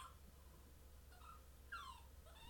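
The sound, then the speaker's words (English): A dog whimpers and squeals in a few short, high-pitched cries, the loudest a sliding whine near the end, over a steady low background hum; no one speaks. “I got a squealing dog.”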